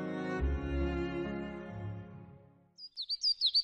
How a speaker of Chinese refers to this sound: 清晨的阳光照射在广场上，鸟儿叽叽喳喳，广场上的人很少，寂静无比。